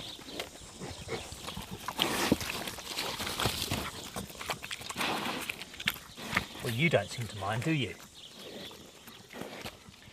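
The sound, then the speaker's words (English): Pigs shuffle and root around a pen, with a steady stream of scuffing, thumping and rustling. A person speaks briefly over the movement. “I just want want to get a sound of you punching away.”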